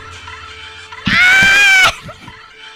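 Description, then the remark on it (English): A single shrill porg scream, a fictional bird-like creature's cry, rings out loud for nearly a second as a sustained squealing cry with no one talking over it. “somebody uploaded a video that is just an hour of the porg scream over and over and oh over oh again.”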